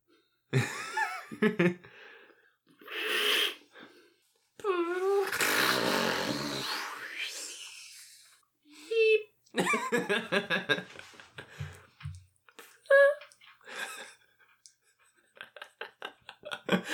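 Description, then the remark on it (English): Sputtering raspberry sounds made by grown-ups with their mouths to imitate farts: several short buzzy bursts and one long wet blast, mixed with breathy laughter and chuckling. “Just us sitting here making fart noises with our mouths and laughing about it.”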